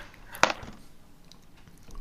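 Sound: dice being rolled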